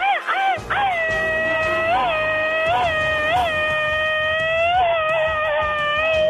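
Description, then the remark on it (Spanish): A loud, high-pitched, machine-gun style Mexican grito yell holds one long piercing note for several seconds, broken by a few quick warbling bumps, over a low rumble of background noise. “Ahí está su grito ametralladora para el buen amigo”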